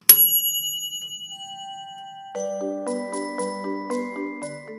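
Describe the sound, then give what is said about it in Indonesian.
A bright bell strike rings out and lingers as it fades, then a quick, repeating run of chiming bell notes takes over, clear with no voices. “Hatinya tergetar mendengar suara yang bagaikan denting lonceng emas itu.”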